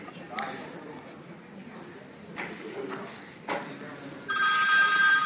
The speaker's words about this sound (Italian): Sta arrivando una chiamata.